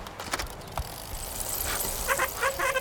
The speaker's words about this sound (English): Get those brakes fixed!